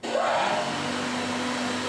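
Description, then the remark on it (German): A cutlery embossing press, with a lower and an upper die part, stamps a silver fork from a plain plate. It runs with a steady, loud mechanical drone and a low hum, with a brief whine rising and falling near the start, and no distinct stamping blows. “Und dann gibt es halt beim Besteckprägen ein Unterteil und ein Oberteil.”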